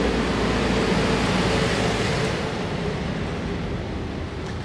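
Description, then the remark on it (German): A garbage truck drives through town, its heavy engine drone and broad mechanical noise filling the air steadily before easing off slightly at the end. No one speaks. “Wir müssen jetzt einmal kurz an der Seite gehen, weil die Müllabfuhr kommt.”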